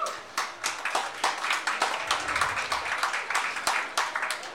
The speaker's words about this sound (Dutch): Mag ik een heel erg hartelijk applaus?